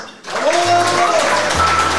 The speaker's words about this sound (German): Und ich bitte um einen tosenden Applaus für den Gastgeber und Organisator des heutigen Abends.